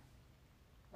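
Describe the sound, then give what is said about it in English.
After a moment of quiet room hum, a dog lets out one sudden, loud bark, cut off right at the end. “excuse my dog”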